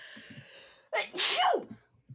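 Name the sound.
sneeze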